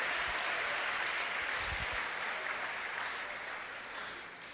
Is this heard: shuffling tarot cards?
no